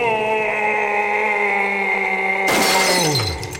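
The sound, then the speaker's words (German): A steady droning hum runs until a sudden, loud crash of stone tablets breaking apart near the end; the hum then slides downward in pitch and fades. “Er hat die Tafeln zerbrochen.”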